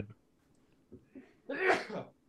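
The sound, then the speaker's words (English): A single sharp sneeze bursts out, preceded by a couple of faint quick breaths, then fades into quiet. No talking. “Excuse me. Um, bless you.”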